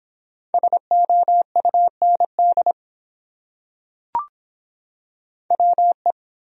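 Morse code beeps at 17 words per minute, sending common English words, a single steady-pitched tone keyed into quick dots and dashes, pausing for a sharp click in the silence before another short run of code.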